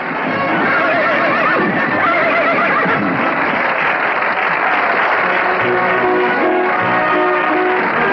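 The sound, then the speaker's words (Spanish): A horse neighs and whinnies repeatedly as a cowboy rides it into an auditorium carrying a banner with the name Bob Lagorne, over a loud, steady wash of crowd applause and cheering, with hoofbeats clattering faintly underneath throughout. “Un vaquero a caballo entra en el auditorio, lleva una pancarta con el nombre Bob Lagorne.”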